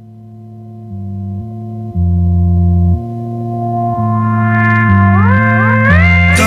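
A rock band's song plays loudly with no talking: a steady bass line stepping between notes, while bright synth-like tones glide upward and build denser toward the end.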